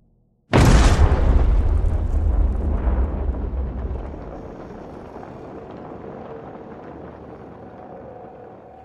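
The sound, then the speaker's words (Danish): A sudden, deafening explosion bursts out after a brief silence, its heavy low boom rolling on for several seconds before settling into a long, fading rumble with debris-like crackle. “Bare et par sekunder senere lød det øredøvende brag fra en eksplosion.”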